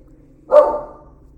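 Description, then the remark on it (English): A single sharp bark from the speaker's own dog rings out loud, then fades quickly into quiet with a low background hum. “And some thunder just happened, and my dog just barked.”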